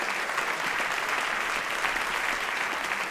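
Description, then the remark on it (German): Sustained applause from a large audience at the end of an evening show, a dense, steady wash of many hands clapping at once, fairly loud and continuous throughout with no voices standing out. “Riesenapplaus!”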